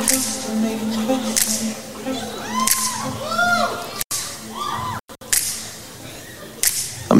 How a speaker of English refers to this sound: Snap your fingers at us. Hey.